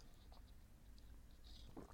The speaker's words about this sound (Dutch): Sorry, hebben een slokje water.